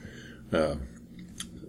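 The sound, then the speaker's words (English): One wet slurping gulp of IPA beer, a second swig taken as a good mouthful, brief and fairly loud, followed by a faint click of the mouth in quiet. “Just took a, a second sip. Sip, actually, a swig, a good mouthful.”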